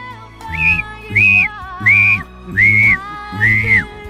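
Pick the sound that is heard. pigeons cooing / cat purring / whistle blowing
whistle blowing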